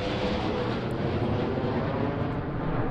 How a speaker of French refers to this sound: un avion qui décolle du Bourget. Là. Et donc, il, sera en plein pile au-dessus d'Europa City.